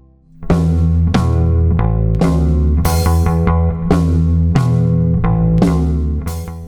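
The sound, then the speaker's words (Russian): Reverb-soaked surf guitar rings out in a Russian post-punk album track, striking bright, sustained chords roughly once a second over a steady, loud low-end drone, with no voices. “Любопытно, что и на этом альбоме можно услышать серф-гитары.”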